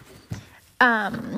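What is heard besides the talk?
dog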